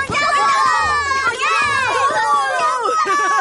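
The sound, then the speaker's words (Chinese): A crowd of schoolchildren cheers and shouts together in a classroom as class ends, high excited voices overlapping in a loud, continuous burst of celebration that holds steady for a few seconds, as they grab their schoolbags and run out. “所有人欢呼一声，扯起书包奔出教室。”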